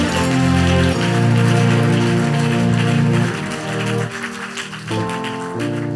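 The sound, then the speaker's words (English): An audience claps steadily in a dense, rain-like patter, mixed with sustained keyboard chords that shift pitch a few times; the clapping eases slightly partway through, and no one speaks. “If you are clapping, don't clap for me.”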